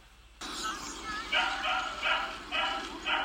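A dog named Noty barks in a park in a steady series of loud, sharp yaps, about five in quick rhythm, against a background hum.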